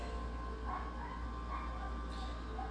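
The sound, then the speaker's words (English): A puppy whimpers and yips in the background inside a house, several short, high-pitched cries spaced through the moment, faint against a steady low hum. “Please forgive me the poor pitiful puppy sounds in the background.”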